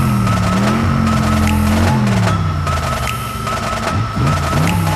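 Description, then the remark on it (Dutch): A loud American car engine revs with a deep, throaty rumble, its pitch holding high, then dropping and climbing again toward the end. No one speaks. “Ook Amerikaanse auto dit, denk ik.”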